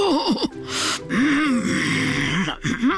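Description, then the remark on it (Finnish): A voice imitates Tinka's stomach growling angrily: wavering, rumbling moans that rise and fall, broken by a sharp breathy gasp, fairly loud with no other sounds. “Se oli Tinkan vatsalaukku, joka siellä murisi vihaisesti.”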